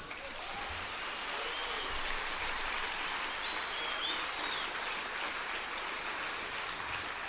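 An audience applauding: dense, steady clapping that keeps an even, hissing roar for about seven seconds without fading, with a few faint whistle-like tones rising briefly above it.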